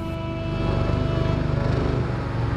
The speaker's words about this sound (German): Es ist der November 2011 und ein Auto fährt durch die Wüste.